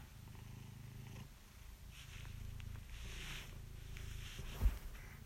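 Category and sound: animal, cat purring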